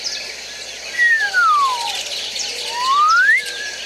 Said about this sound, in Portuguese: Escuta lá. Escuta lá assobiar. Escuta lá assobiar.